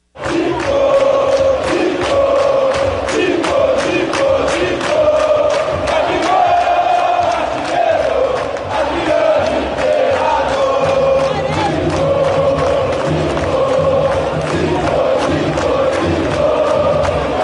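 A large stadium crowd of Flamengo football fans chants a rhythmic song in unison, loud and sustained throughout, with many voices blending into a steady melodic roar.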